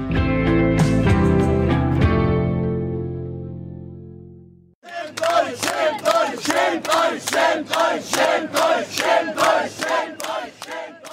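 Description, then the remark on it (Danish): A sustained musical chord rings out and fades, then a loud crowd of Germans unhappy with the German media chants "shame on you" in unison at a team of journalists from Spiegel, a rhythmic string of about a dozen shouted bursts. “sådan som man hører i klippet her, hvor de råber skam jer af et hold journalister fra Spiegel”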